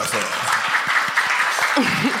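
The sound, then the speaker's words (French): A crowd at an evening event applauds journalist Jennifer Pajemi with dense, steady clapping throughout, and a few cheers or whoops rise above the patter near the end. “Applaudissez la”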